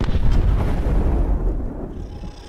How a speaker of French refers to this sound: Et je me rends compte en même temps que le, les coups de feu que j'entendais, c'est un autre terroriste qui habitait en, en, veste de steward bleu, avec des grosses lunettes noires, qui était assis euh, à droite de l'entrée du cockpit, qui lui me